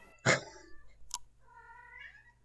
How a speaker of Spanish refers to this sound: Es un gato, parado adelante mío. ¿Cómo? Es un gato que te quiere y te hace ruido. No, no, no, no me quiere. Está tipo parado adelante mío,